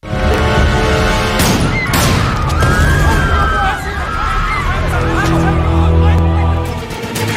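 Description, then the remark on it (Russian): Two sharp, loud revolver shots, fired by Gavrilo Princip at Archduke Franz Ferdinand and his wife, ring out about half a second apart, standing out against a dense, steady backdrop of murmuring crowd noise and sustained tones. “Всего два выстрела.”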